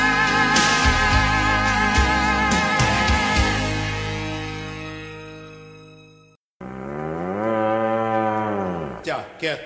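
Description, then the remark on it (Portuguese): Two long, loud cattle moos: a deep, wavering bellow over about six seconds, a brief pause, then a second drawn-out moo that rises and falls before trailing off. “Te afasta pra lá, boi vai nojento. Ei, boi! Ei, boi!”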